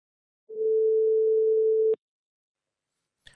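A single steady telephone ringback tone of an outgoing call to a Ménesson Photo shop in Reims, part of the Fox group, sounds for about a second and a half, clear, then cuts off abruptly with a click; a brief faint click follows near the end.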